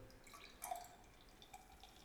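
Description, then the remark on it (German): Pale golden Maibock beer is poured into a glass, a soft trickle and splash with a few faint drip-like plinks over quiet background noise, with no one speaking. “Ich bin schon am Einschenken.”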